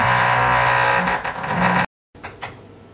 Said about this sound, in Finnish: Saattaa olla pieni keskeytys, jotain poraustyötä tai vastaavaa.